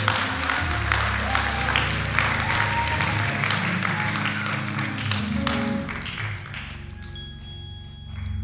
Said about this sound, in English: Y'all could just give the worship team a hand clap, praise for just leading us.